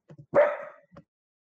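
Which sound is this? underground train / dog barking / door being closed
dog barking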